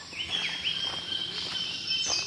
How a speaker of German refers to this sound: Die Vögel singen vor Sonnenaufgang am intensivsten und der See ist am schönsten, wenn noch keine Menschenseele dort ist.